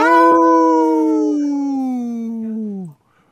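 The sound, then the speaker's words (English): A person's voice imitates a wolf with one long, loud howl, holding a steady pitch for about three seconds before sliding downward and cutting off. “we need a wolf in our band.”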